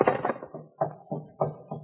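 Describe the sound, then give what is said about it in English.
Knocking on a door: a quick cluster of hollow thuds, then four heavier knocks spaced about a third of a second apart, firm and low-pitched with no voices. “Uh, someone's at the door, I think.”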